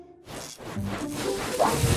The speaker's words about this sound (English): Okay, Guy Raz, you hold the magnifying glass while I rub this material on the carpet, and then tell me what you see.